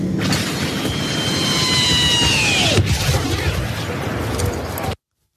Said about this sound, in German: Ähm, und zwar ein Video, wo man äh, sieht, wie äh, äh, äh, Episode 6 mäßig äh, ein Arwing runterkracht und mit so, so einem Kreischen so und äh, Spiel das mal vielleicht an der Stelle.